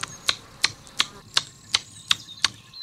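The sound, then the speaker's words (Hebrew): A bat detector renders a bat's echolocation calls, made as it flies up searching for an insect, as seven sharp, dry clicks at a steady, even pace of about three per second. They are clear and alone, with only a faint hiss between them. “אז אה, כשהטלף אה, מחפש, זה נשמע בגלאי ככה.”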